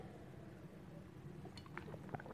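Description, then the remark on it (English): Someone quietly sips water from a glass, with a few faint clinks and soft swallowing sounds against a low background hum. No one speaks. “Sorry, drink a little water here.”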